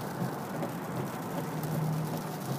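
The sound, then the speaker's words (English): Steady, dense rainfall on a Tuesday morning, infrequent yet heavy, hissing across a broad range, a constant wash with no pauses, moderately loud, with a faint low rumble underneath. “There will be periodic periodic moments where my volume will increase as I shout over the rain.”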